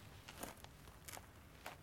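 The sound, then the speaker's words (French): A few soft, gritty crunches as feet shift over crumbled plaster debris, about four irregular scraping steps with a dry crackling texture, heard alone with no voices. “Si je bouge les pieds, ça crisse.”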